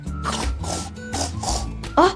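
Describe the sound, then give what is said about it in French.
A person hiding behind curtains imitates a pig with a run of throaty grunts and snorts that ends in a louder, higher squeal, to surprise someone. “Je vais me cacher derrière les rideaux en faisant un grognement de cochon pour le surprendre.”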